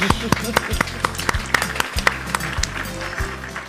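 Scattered applause: a quick, uneven patter of sharp claps from a small group, fairly loud and continuing throughout, over a low, steady humming tone underneath.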